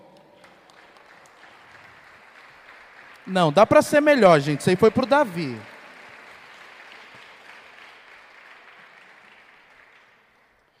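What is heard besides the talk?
audience applause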